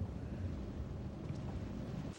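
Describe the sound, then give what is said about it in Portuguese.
A steady, loud low rumble of a boat moving across water, with wind buffeting the microphone throughout and no voices. “Por favor, para esse barco!”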